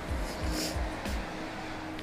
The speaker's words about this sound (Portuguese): Ó, oh, o caminhão passando.